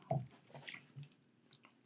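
A quiet wet gulp of someone swallowing a drink, a low squishy throat sound followed by a few soft liquid clicks and small drips, with no talking.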